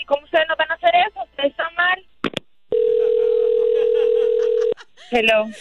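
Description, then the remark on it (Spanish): A loud, steady telephone dial tone hums for about two seconds after a dropped call, with people talking just before and right after it. “Ay, perdón, disculpa, parece que se cortó la llamada.”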